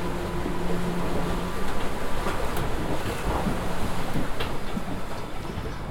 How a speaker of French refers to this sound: et je fuis cette odieuse réalité de cette traversée, ce mouvement incessant, le vacarme des vagues qui se fracassent sous le bateau, le vent qui fait siffler les voiles et les cordes.